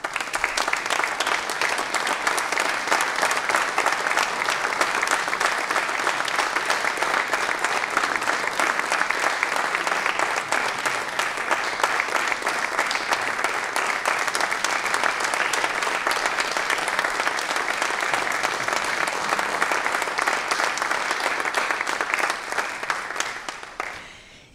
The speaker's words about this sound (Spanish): Recibimos con un aplauso en el escenario de nuestro auditorio a Patricia Dadalt y a Lucrecia Yangsa.